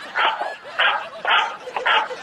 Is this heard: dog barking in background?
yes